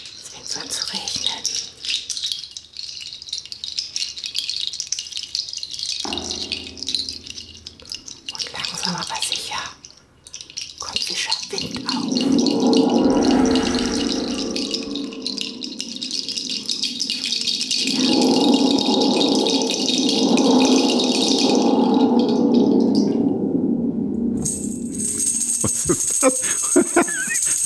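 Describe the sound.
A rattle stick gives a dry, hissing rattle, shaken steadily for long stretches, imitating a rattlesnake's warning buzz, with pauses between bursts and a voice murmuring at times underneath.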